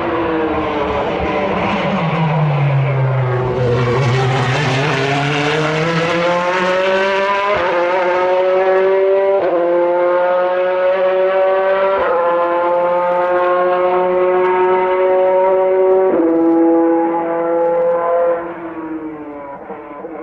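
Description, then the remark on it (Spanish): A Corvette sports car engine roars and revs continuously, its pitch dipping then climbing through rising gear-like sweeps, loud, with no voices, before easing off at the end. “Y pues sí, no me dejarán mentir y van a ver que se escucha bastante diferente de lo que se imaginarían que es un Corvette o un American Muscle.”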